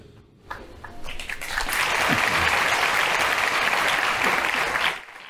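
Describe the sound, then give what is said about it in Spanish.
An audience breaks into applause that builds within the first second and holds as a steady, dense wash of clapping for several seconds before cutting off abruptly near the end. “No, ¿están todos aplaudiendo o no habría matemáticas en la escuela?”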